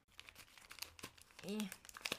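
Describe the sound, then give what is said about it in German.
Irregular crinkling and rustling of wrapping paper on four small gift packages with extra small items on them, crackling in short bursts, with a brief voice murmuring partway through. “Und auf den Päckchen noch extra kleine Sachen. Ist auch sehr süß verpackt.”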